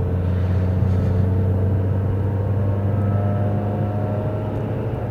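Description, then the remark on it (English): A troubled car engine making a bad noise runs with a steady, heavy low drone and rough rumbling undertone, loud, continuing unchanged for several seconds with no voices. “I don't know what the deal is with this thing, but I'm really having to be cautious with it. You can hear that?”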